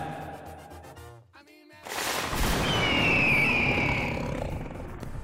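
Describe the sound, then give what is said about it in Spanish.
A loud, rumbling jaguar roar sound effect bursts in and sustains for several seconds while a shrill, piercing eagle cry sound effect rises over it, both triggered by button presses, following a brief tonal snippet and a short gap. “o sea, piqué el del águila y el del jaguar.”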